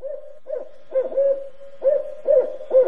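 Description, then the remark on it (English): A barred owl hoots a rhythmic series of deep, resonant notes, several rising and falling in quick succession, clear with no voices present. “The barred owl is her favorite of all.”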